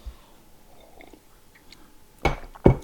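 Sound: sipping tea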